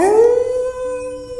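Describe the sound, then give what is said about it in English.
A single loud wolf howl, rising quickly then holding a long, steady tone for over a second with no other sounds around it. “All right, says Wolf, and she lets loose a howl.”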